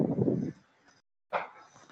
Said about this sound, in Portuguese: Sai, cachorro!